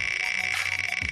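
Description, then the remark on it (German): Rapid, steady clicking from a prize wheel spinning to draw winners of a book giveaway, a fast even stream of ticks with a bright metallic edge, moderately loud, with no voices. “Knatter, knatter, bang.”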